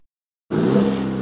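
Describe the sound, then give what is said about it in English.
The 2.7-liter high-output turbo engine of a 2023 Chevy Silverado pickup truck suddenly roars to life after a moment of silence, holding a strong, steady revving growl with no talking. “That's the sound of the 2023 Chevy Silverado's 2.7 liter high output turbo engine, delivering 430 pounds per foot of torque with no compromised durability.”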